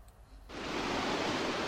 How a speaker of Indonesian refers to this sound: Jelang sore di Desa Lubuk Beringin, Kabupaten Bungo, Jambi, Sungai Batang Buat tampak bening. Airnya mengalir deras di antara bebatuan.